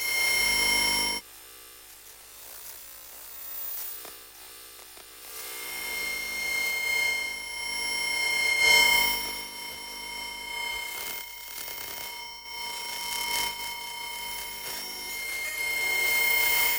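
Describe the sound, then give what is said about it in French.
Electromagnetic sounds added by a sound designer as a layer of a demon's scream: steady electrical hums and piercing high whines layered with buzzing, crackling interference, sustained and fairly loud throughout, briefly thinning near the start before swelling again, with no voices. “Ensuite, des sons électromagnétiques.”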